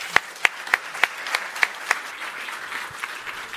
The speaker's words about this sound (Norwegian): Dere skal få slippe til dere, men vi gir dem en applaus så langt.